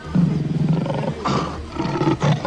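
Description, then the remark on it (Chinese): A lion lets out a deep, rumbling roar that swells in two or three loud surges, with a gravelly growl between them and no voices. “在一个炎热的日子里，有一只狮子竟然走进了城市里。”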